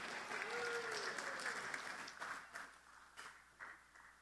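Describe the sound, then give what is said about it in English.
Steady applause for the sound guy from an audience at Shiloh, dense and fairly loud at first, then thinning into scattered claps and tapering off by the end, with a few faint voices mixed in. “Let's, let's hear it for the sound guy.”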